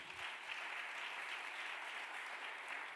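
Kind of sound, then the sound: crowd, audience applauding loudly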